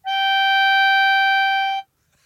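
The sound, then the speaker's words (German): A single loud, reedy harmonica note held steadily for nearly two seconds, then cut off abruptly, with no other sounds around it; a substitute football referee plays the harmonica in place of a whistle to signal a free kick. “Es, es gibt wunderschönes Videomaterial davon und dann ist immer Freistoß und der Schiedsrichter harmoniert an.”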